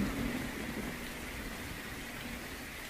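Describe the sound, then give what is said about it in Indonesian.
Heavy rain with thunder pours steadily in a dense, hissing wash with a low rumbling undertone, constant throughout, with no voices. “Hujan deras sejak sore tadi menyiksakan peka dingin yang merasuki tulang.”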